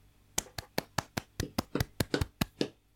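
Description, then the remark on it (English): A hand slaps a windowsill about a dozen times in quick, steady succession, each slap sharp with a slight hollow thud; no one speaks. “I'm you were, clapping you were, with the hand on the windowsill.”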